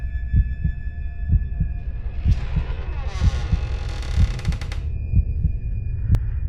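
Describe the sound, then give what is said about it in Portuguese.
A steady, low thumping heartbeat pulses throughout, each beat a soft dull throb, under a faint high drone with a brief rushing swell in the middle and a sharp click near the end. “Meu coração desacelerou e eu dei um pequeno suspiro de alívio quando entrei.”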